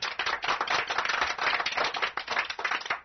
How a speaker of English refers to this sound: And the studio audience goes wild again.